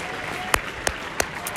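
A stadium crowd claps over a steady background wash, with several sharper, louder claps standing out at a fairly regular beat.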